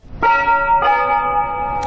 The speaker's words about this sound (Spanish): han sido las campanas de las seis y cuarto. Pues, el sonido, pero se escucha el, sonido ambiente de, Alcalá de Henares.